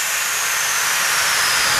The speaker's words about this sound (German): Es war jetzt gerade der Bremstest, den wir noch machen mussten äh, als Vorbereitung, damit wir losfahren können.